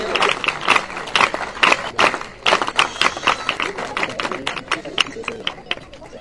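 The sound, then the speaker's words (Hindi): Sustained applause from an audience, dense overlapping claps filling the whole stretch at a fairly loud, steady level, with some crowd voices mixed underneath. “भाई साहब के लिए भरपूर तालियां”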